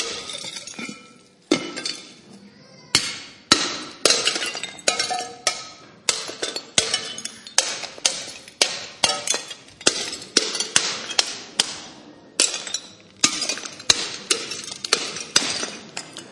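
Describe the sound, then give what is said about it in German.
A hammer repeatedly smashes ceramic flower pots from Obi laid on newspapers, a steady run of sharp cracking blows with shards clinking and scattering after each strike. “Und ähm, ich habe sie noch nicht ganz klein, ich hau noch ein bisschen weiter drauf.”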